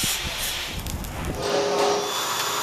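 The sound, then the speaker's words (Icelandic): Steady construction noise fills the scene, a broad hissing wash with a faint whining tone and scattered clanks and thumps as workers install windows in a newly concreted building, with no voices. “Og eins og heyri kannski sjáu þá er hérna verið að vinna á fullu, það er verið að setja glukkana í húsi”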